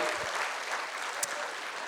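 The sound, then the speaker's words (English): A church audience applauds their pastor steadily, many hands clapping in a dense, continuous wash of sound that holds an even level throughout, with no voices above it. “Give your pastor a big hand, would you?”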